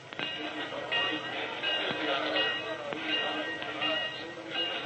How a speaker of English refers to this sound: The Super Comet all bedroom train is the pride and joy of Will Norris, the Great Valley Railroad's first vice president. At 3.50 twice a week, Will Norris stopped whatever else he was doing and personally supervised his pet train's departure.